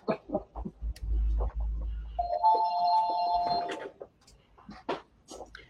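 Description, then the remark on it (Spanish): A telephone that was left switched on rings with one steady electronic trill lasting about a second, clear, surrounded by short bursts of speech and some low background rumble. “Perdón, he cerrado el otro teléfono, pero este se ha quedado abierto, perdón.”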